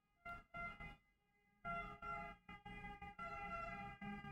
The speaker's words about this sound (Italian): L'ambulanza.